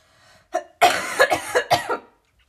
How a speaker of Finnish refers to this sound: Anteeksi nyt yskäisen.